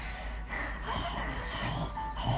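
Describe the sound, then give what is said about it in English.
Loud, wheezy snorting breaths repeat in rough, noisy pulses, like a pug huffing through its nose, with no speech. “Is she breathing?”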